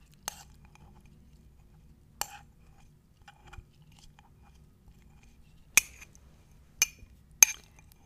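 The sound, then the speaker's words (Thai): Mint leaves being crushed with a coffee spoon in hot water: about five sharp, crisp knocks at irregular intervals, with faint scraping and rustling between them and no voices. “อันนี้คุณผู้ฟังทำไปพร้อมๆกันเลยก็ได้นะคะพูดถึงการบดใบมิ้นเนี่ยก็นึกถึงการทำโมฮิโต้ค่ะ”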